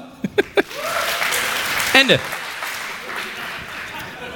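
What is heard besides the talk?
audience applause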